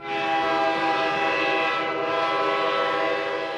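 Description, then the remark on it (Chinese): A diesel-electric locomotive engine roars in eighth throttle notch at about 112 km/h, a loud, steady rumble layered with a strong humming, almost horn-like tonal drone that holds unbroken for several seconds, with no voices. “他从一档缓慢的起步，当换到八档的时候，车速将达到每小时一百一十二千米。这时，火车会发出雷鸣般的轰响。”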